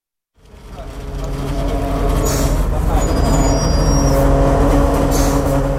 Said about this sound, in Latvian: Pie Rīgas Austrumu Kliniskās Universitātes slimnīcas piebrauc divstāvīgs pasažieru autobuss ar Ukrainas numurzīmēm.